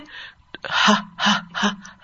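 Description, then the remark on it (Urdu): A person imitates a dog panting with its tongue out: a quick run of four or five loud, breathy huffs in steady rhythm, with no talking during it. “اس طرح کر کے سانس لینا یعنی آپ کتے کو دیکھیں گے کہ وہ ہمیشہ زبان نکالے ہانپتا رہتا ہے”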